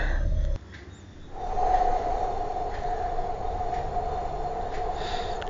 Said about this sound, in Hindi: राम अवतार जी को इतना बोलना ही था कि तभी अचानक न जाने क्यों तेज हवा चलने लगती है